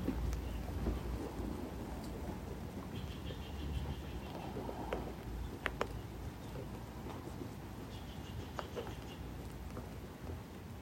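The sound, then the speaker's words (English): Steady, soothing rain falls in a continuous wash, with scattered sharper drips and taps and a soft low rumble underneath. No one speaks. “Letting the quiet soothing rain mingle and bathe every single cell in your body.”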